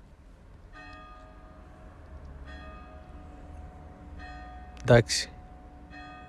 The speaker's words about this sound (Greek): Δεν πρόλαβα να τελειώσω, χτυπάνε καμπάνες. Σημαδιακό.